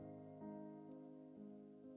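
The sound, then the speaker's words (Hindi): Raindrops patter on the roof and front windscreen of a car over a steady low droning hum, with soft thumps recurring about every half second. No one speaks. “car की छत पर सामने के विंड स्क्रीन पर पानी की बूंदें टप टप गिर रही हैं”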